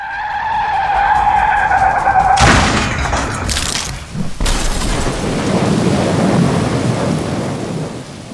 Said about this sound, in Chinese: 可是就在他们尖叫时，后面的本田轿车却一头撞在了巨大的泰山石墙上。